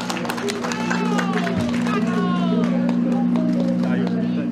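An audience at an election campaign headquarters event applauds loudly and steadily for several seconds to welcome party secretary-general Hsu Li-ming, dense clapping mixed with crowd noise, while a few rising and falling whistle-like tones sound over it and a low steady hum runs underneath.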